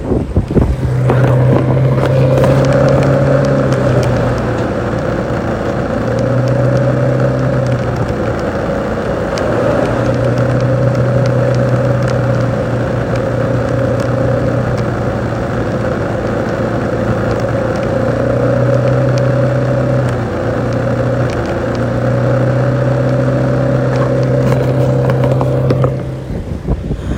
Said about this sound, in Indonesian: tapi ini di belakangku ada motor ini bahaya ini aku takut ini aku takut ini bentar ya